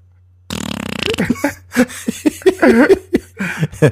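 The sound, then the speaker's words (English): A voice mimics a slow queef: a buzzy, sputtering raspberry followed by a string of drawn-out, wobbling vocal bursts, fairly loud. “and then you try to go slow to stop the queef noise, and then it just goes slow.”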